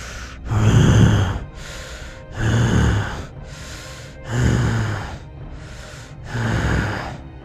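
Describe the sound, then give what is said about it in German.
Someone imitates a monster snorting during a tabletop role-playing game: four heavy, rasping snorts, each followed by a quieter breathy intake, repeating in a slow, steady rhythm. “Du hörst in einiger Entfernung vor dir eine Art Schnauben”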